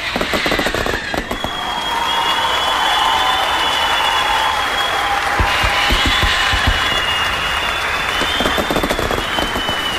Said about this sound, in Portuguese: Aliás, o editor, palmas pro Leandro, editor.